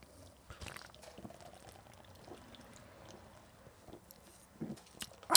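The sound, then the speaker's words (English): Drinks are poured softly after a toast, followed by quiet sips and swallows, with a few small knocks and a sharper bright sound at the very end. “Cheers. Cheers.”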